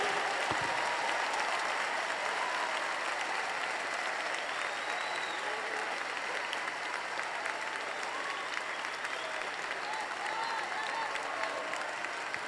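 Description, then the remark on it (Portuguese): A crowd applauds steadily for several seconds, dense overlapping claps forming an even wash of sound with no pauses and no talking over it. “E se o que eu preciso para receber o que eu quero é ter a capacidade de celebrar você, então eu vou receber hoje porque as minhas palmas agora são para você.”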